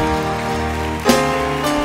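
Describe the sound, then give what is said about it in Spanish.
An audience in a church sanctuary applauds to welcome the Holy Spirit, a dense, steady wash of clapping that holds throughout, with sustained musical tones underneath and a brief swell around the midpoint. “Y ahora le damos la bienvenida al Espíritu Santo con otro aplauso.”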